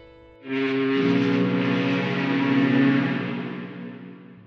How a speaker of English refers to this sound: that only a kid can feel on the shore of Lake Michigan or Huron, just hoping to get to hear the long, deep whistle of the freighters as they would sound out their horns when one ship would pass by another.